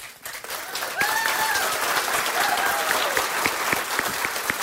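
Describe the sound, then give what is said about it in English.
An audience at a candidates forum in Belfast breaks into sustained applause, many hands clapping in a dense, steady wash that stays fairly loud throughout, with a couple of faint rising whoops or whistles mixed in. “I would like to give a big round of applause.”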